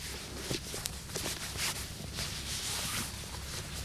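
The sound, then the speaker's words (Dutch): Footsteps in tall, thigh-high rubber waders slosh through a waterlogged field deep enough to sink past the knees, a steady run of wet, squelching steps under a constant noisy background, with no one speaking. “Nou, ik zal mijn lange laarzen ervan aantrekken, dan zal ik er doorheen lopen.”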